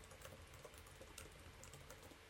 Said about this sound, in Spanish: Estoy tecleando furiosamente para buscar al conejo.